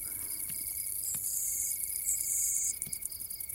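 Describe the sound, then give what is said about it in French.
A dense chorus of insects chirps steadily in vegetation, a continuous high buzzing with a sustained tone, punctuated by a few faint clicks, with no voices present. “Le concert d'insectes a repris progressivement.”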